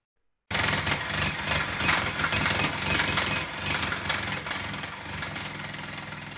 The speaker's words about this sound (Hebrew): מה זה? התחלנו לשמוע רעשים ממש מאחורינו. הסתכלתי מהחלון וראיתי פועל עובד. לא ממש ראיתי מהחלון על מה הוא עובד, מה כבר פועל בנייה יכול לעשות באמצע הר.